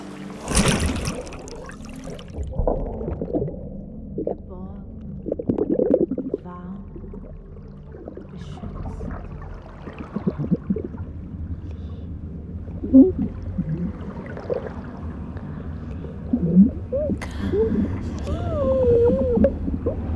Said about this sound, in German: Warum macht denn da keiner was? … ertrinkt da.